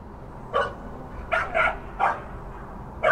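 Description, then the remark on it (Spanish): A dog barks in short, sharp bursts, about five of them spaced irregularly over a few seconds, moderately loud against a low, steady background hiss with no voices. “Después de que el niño se hiciera mayor, se subió a la azotea y alcanzó a ver a un perro que iba detrás de un distinguido hombre andando por el camino.”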